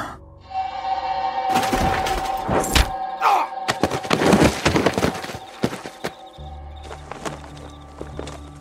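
A table full of food is shoved over with a loud crash of falling dishes and clattering tableware, a burst of sharp impacts and scraping thuds that settles into a few scattered clinks against a low hum.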